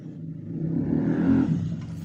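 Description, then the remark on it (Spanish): A motorcycle engine drones past outside, its rumbling growl swelling louder at the midpoint before easing off as it moves away. No one speaks. “Conteo de motos, güey.”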